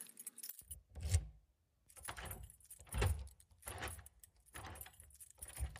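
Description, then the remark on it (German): Keys jangle and clink in several bursts as Frau Gugelhupf locks the door behind her on her way out shopping, with metallic rattles and low thumps of the lock, separated by short pauses. “Biene und Ben hörten, wie Frau Gugelhupf die Tür hinter sich abschloss”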